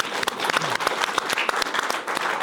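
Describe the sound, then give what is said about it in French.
An audience breaks into sustained applause, a dense, even patter of many hands clapping at once, with sharper individual claps popping out of the steady wash. “On peut l'applaudir.”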